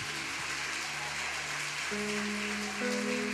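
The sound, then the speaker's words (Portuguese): An audience claps steadily in a dense, continuous wash of applause, with sustained keyboard chords underneath that step up in pitch twice. No one speaks. “Aplauda mais forte.”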